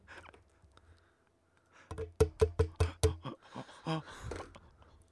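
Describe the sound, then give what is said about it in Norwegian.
A quick run of sharp, hard taps of a pen on a plastic webcam, about five in steady rhythm, followed by a few looser clicks and rattles, fairly loud. “Jeg slo på, jeg slo på webcamen med penn.”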